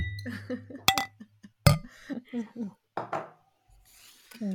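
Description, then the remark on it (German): Glasses clink together in a toast to a good year, two bright knocks about a second apart with a brief ringing tone, surrounded by murmured voices and soft laughter. “Ein Prost auf das gute Jahr.”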